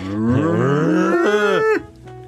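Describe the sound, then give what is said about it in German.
A single loud cow moo, a drawn-out bellow that rises in pitch, holds for nearly two seconds, then cuts off abruptly, leaving quiet. “Ich habe noch nie eine Kuh gehört. Auf Mal. der sagt Mu, Mu, Mu.”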